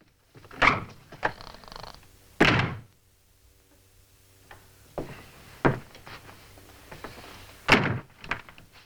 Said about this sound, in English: Now, notice there's a door slam as Herta leaves the guest room.